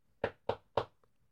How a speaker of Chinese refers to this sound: 于是他们大伙儿来到了一座很大的农舍前面。陶乐斯勇敢的敲了敲门，